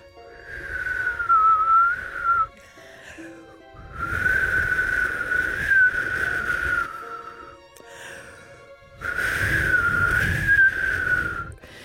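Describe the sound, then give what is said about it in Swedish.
Three long whistled phrases imitating the song of a small white bird on a branch, each a steady warbling tone with slight wavering, separated by brief pauses and audible breaths, fairly loud, no talking. “Den tredje dagen då fick de syn på en liten vit fågel på en gren och den sjöng så vackert att barnen de bara måste stanna och lyssna. Ungefär så här lät det.”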